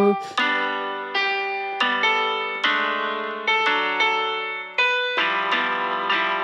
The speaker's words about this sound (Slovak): Áno, to ja som teraz kazil, pretože ja mám veľké prsty na ten mobilný klavír.